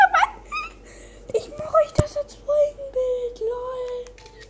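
A female cat meows loudly, a short cry followed by a long, wavering, drawn-out meow that slowly slides in pitch, with a sharp click partway through.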